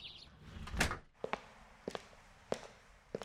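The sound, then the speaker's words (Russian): The door to a glassblowing workshop at an art glass museum opens with a dull, heavy thunk, followed by a few sharp, evenly spaced footsteps or knocks, with no one speaking. “Что это у нас тут э, за дверь такая стеклодувная, насколько я понимаю, мастерская?”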